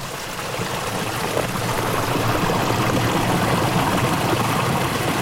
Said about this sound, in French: Super beau là, on voit, euh, c'est assez flippant, quoi. On voit euh, la rivière souterraine sous la glace.